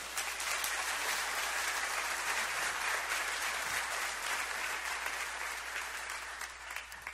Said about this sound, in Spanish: Y si usted lo cree, déle un fuerte aplauso al Señor.